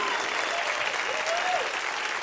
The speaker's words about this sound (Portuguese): Enquanto vocês descem, o pessoal vai aplaudi-los mais uma vez. Mas aplauda forte aí, meu irmão, por favor. Aplauda como se fosse a sua mãe, seu pai, seu irmão, sua família. Aplauda forte aí, meu filho.